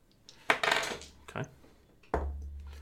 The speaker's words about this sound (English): So uh, roll a d6 for silver